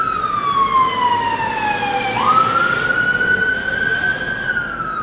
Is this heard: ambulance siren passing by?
yes